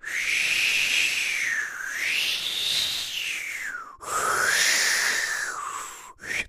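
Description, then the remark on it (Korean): A lip-made whistle imitating winter wind, a breathy, airy tone that slowly rises and falls in pitch in long sweeping waves, fairly loud and alone, with a brief break before a second gust. “이 소리만 들어도 제 입술로 낸 거거든요.”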